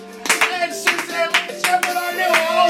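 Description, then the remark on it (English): A slow clap: about six sharp hand claps spaced roughly half a second apart, crisp, over a faint steady tonal hum in the background. “Slow clap. Slow clap.”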